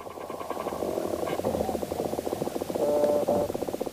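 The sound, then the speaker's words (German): Dense, continuous scratching and ticking with rapid pulsing rhythms, made by small animals moving in the dark underground in the soil of a pasture, with a steady hissy background and no talking. “Was ihr gerade hört, das sind kleine Tiere, die im Dunkeln unterwegs sind.”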